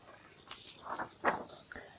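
Heavy footsteps of a big bear in a story, marching back along the path through a forest: four or five uneven steps over a couple of seconds, moderately loud, with soft rustling between them and no voices.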